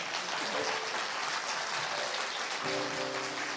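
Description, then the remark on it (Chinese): Sustained applause from an audience at a debate event, a dense steady wash of clapping that holds at an even level throughout, with a faint tonal hum entering near the end. “呃，最后呢，安排我好，掌声，掌声欢迎。”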